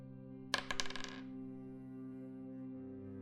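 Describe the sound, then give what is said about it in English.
Dice clatter across a hard tabletop in a quick burst of bright clicks that tumble and settle within a second, rolled for a perception check and landing on seven, followed by a quiet, steady hum. “Um roll a perception check.”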